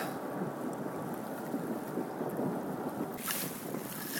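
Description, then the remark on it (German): A large tanker ship on the Rhine rumbles past close by a buoy, its deep, steady engine drone mixed with broad washing water and wind noise, with a brief brighter hiss near the end. “Der Tanker ist gerade ziemlich eng an der Boje vorbeigedüst.”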